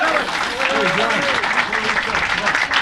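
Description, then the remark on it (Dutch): Audience applause at a Christmas gathering fills the whole stretch, a dense, steady crackle of many hands clapping, with voices talking and calling out over it. “Dus echt super tof dat jullie er zijn. Applaus!”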